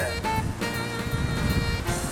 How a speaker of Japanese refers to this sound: ちょっと車来ました